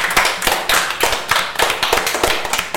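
Several people applaud together, a dense patter of hand claps with a steady, slightly uneven rhythm and bright, crisp attacks, continuous throughout with no voices.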